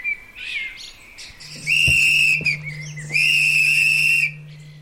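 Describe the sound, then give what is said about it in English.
Two long, shrill whistle blasts at a greyhound dog run on a Wednesday afternoon, calling the greyhounds to run towards the camera. Each blast is held for over a second with a brief pause between, loud, with faint chirping birds and a low steady hum in the background. “The whistle is to call the greyhounds to run towards the camera.”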